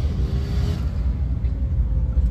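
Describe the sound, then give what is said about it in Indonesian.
A steady, low engine rumble fills the inside of a car, a constant deep drone with a faint hum above it and no voices. “Dengeran gak deh gue ngerekam di mobil nih nggak tahu nih suaranya gimana”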